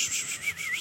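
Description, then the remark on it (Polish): A voice imitates how the Polish language sounds to some foreigners: a brief, steady hiss of rasping "sh" sounds with slight wavering pitch, fairly quiet, lasting under a second with no actual words. “że takie szuranie, no.”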